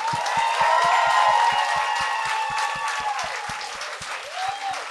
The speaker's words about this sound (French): Mesdames et messieurs, donnez une bonne main d'applaudissement à Mélanie Ganimé et Pierre Hébert.